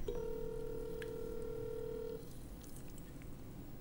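A steady electronic ringback tone from an outgoing phone call plays for about two seconds, then cuts off, leaving faint background noise with no one speaking.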